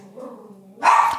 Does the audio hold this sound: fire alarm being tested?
no